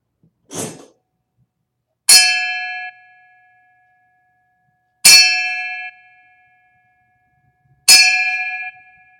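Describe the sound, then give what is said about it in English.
Three loud, bright bell strikes ring out alone as a salute in memory of a deceased uncle, evenly spaced about three seconds apart, each clanging sharply and then fading, preceded by a short soft knock. “Give a three bell salute to our uncle Joe Lundy.”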